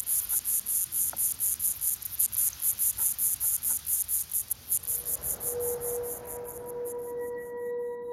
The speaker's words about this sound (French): De cette manière, la coris bruyante entame une parade nuptiale pour séduire la femelle. Rapportée à la taille de l'insecte, qui ne mesure qu'un millimètre, ce son est l'un des plus puissants de la planète.